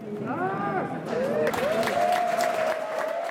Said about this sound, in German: Als er auf einem der Bildschirme eingeblendet wird, herrscht schon wieder großer Jubel.